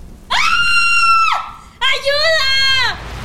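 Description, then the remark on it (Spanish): A woman lets out two long, piercing screams, each held for about a second with a brief gasp-like pause between them and no talking. “Me miré al espejo y habían pasado solo un par de minutos cuando escuché el grito”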